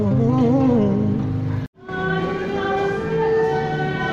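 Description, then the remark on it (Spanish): Buenos Aires subway (subte) train ambience: a loud, steady rumble with sustained whining, tonal hums and pitch shifts, broken by a brief silent cut midway, then continuing just as full. “Estamos en el subte de Buenos Aires.”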